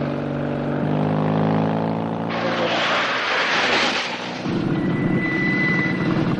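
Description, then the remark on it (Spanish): A loud Guardia Civil motorcycle engine drones and revs up as it accelerates alongside a cash-transport truck on a road, then a rushing roar sweeps past before a deeper, heavier engine rumble continues steadily. No one speaks. “acelera, se coloca a la altura del camión y le hace una señal al conductor para que frene.”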